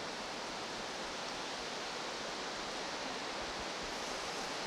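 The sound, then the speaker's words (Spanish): Heavy rain pours down steadily, a dense, unbroken hiss filling the whole stretch with no pauses and no voices over it. “Bueno, es mucha lluvia.”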